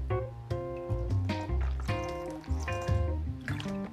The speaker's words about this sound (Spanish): estoy pasando el juguito a, la, a, mi botellita de agua porque tengo sal. Y esta en una jarra, jugo.